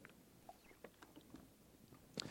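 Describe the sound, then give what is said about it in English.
A quiet sip from a drink: faint, scattered wet mouth clicks and lip smacks, ending in a slightly louder gulp or swallow. No one speaks. “if you'll give me a moment, I'm going to take a sip. My mouth is very dry today.”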